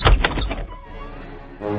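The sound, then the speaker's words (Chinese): A heavy wooden thud and rattle as the Big Bad Wolf of Little Red Riding Hood pushes hard on a door tied shut with a thin string, the string snapping and the door opening, followed by a faint thin creak and a low rumbling settle. “”大灰狼使劲一推，细绳子就断了，门就开了。”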